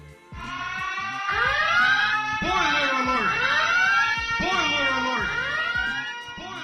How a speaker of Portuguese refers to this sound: A spoiler, bate o aviso, a sirene.